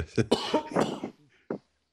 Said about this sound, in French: Maintenant j'ai juste cette toux terrible qui me qui me me handicape.